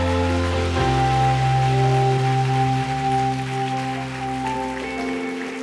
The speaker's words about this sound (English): Come on, keep giving them a hand. Isn't that great?